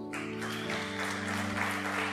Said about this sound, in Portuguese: Oh, meu Deus, aplauda o Senhor, querido.